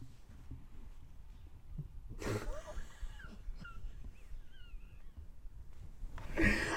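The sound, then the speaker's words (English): A cat in a lounge room wheezes and snorts, a couple of harsh breathy bursts with faint squeaky whistles between them, over a quiet low background hum. “And you're about to see my cat, maybe.”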